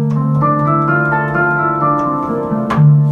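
An electronic handpan plays several notes that ring out and overlap into a warm, resonant wash. A brighter, loud strike lands near the end, with no voices.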